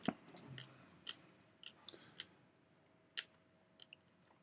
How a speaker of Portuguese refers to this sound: vamos aproveitar que a gente está mastigando aqui.